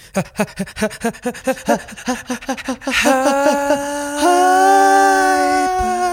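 A stifled, suppressed scream: about three seconds of quick, breathy huffing pulses, then a strained, held squeal that rises slightly in pitch and stays tight and muffled, with no words.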